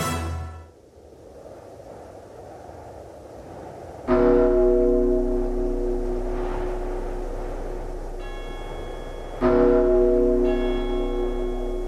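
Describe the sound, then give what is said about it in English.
A heavy iron bell tolls slowly, three deep strikes spaced several seconds apart, each ringing out loud and resonant with a long, humming decay over a low background rumble. “Hear the tolling of the bells, iron bells.”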